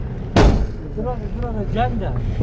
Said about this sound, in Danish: Og lyden af bilens brummende motor får pulsen til at sænke sig en smule.